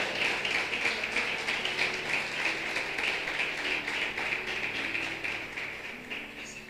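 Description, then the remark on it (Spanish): An audience at a church service applauds the Lord steadily, many hands clapping in a dense, even wash of sound that holds at a fairly loud level throughout, with no voices standing out above it. “un aplauso bien grande al Señor.”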